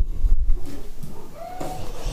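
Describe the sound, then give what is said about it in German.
A cat named Mia meows once or twice, a short rising, tonal call, over a low background rumble with no talking. “Ja, äh, ansonsten äh, mauzt Mia mal wieder.”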